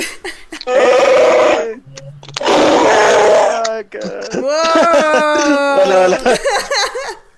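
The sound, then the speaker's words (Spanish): A person loudly imitates an animal's roar in three long, strained bursts from the throat, the last one wavering and bleat-like, with no other sounds. “Ese fue un buen rugido, amigo.”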